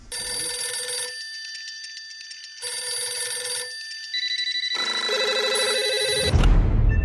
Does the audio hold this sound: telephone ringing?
yes